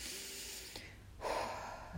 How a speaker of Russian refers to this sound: реально вдохнул. Да, мне, знаешь, еще кажется, что как будто ты в реальность в этот момент, ну, как бы обратно возвращаешься.